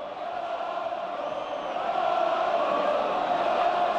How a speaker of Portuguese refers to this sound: E a torcida volta, volta a gritar de novo, hein, Fernando? Tá, tá gritando de novo, de novo, gritos racistas. A gente acabou de escutar no Mestalha, gritando mono, mono, mono, mono.